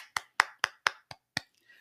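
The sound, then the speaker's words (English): About six sharp hand claps in a quick, steady rhythm, like one person applauding briefly, then fading into near silence. “So, as always, give yourselves a round of applause.”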